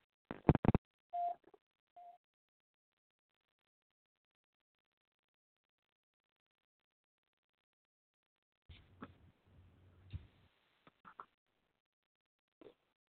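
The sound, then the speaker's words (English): A few sharp clicks and a brief electronic tone sound over a phone line as a call drops, followed by near silence, then a burst of muffled line noise with scattered clicks and crackles. “and okay, I cut three different times to come back in, and I kept hearing the click and then a drop.”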